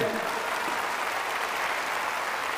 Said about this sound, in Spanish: Ok, dale un fuerte aplauso.